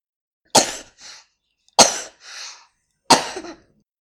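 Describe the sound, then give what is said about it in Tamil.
Three sharp coughs spaced about a second apart, from a throat irritated by the smell of flavour extracts being mixed for ice lollies, each a harsh burst followed by a softer rasping catch of breath, with no talking. “இந்த வாசனை என் தொண்டைய உறுத்துதே என்று கேட்டாள் சோனா”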